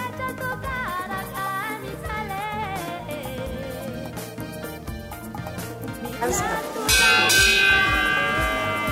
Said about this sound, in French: À 15h30, la cloche sonne. C'est la sortie des plus petits.